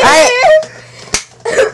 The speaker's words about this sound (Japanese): ビンタです